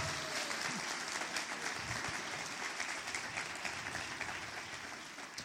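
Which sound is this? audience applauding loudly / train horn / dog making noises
audience applauding loudly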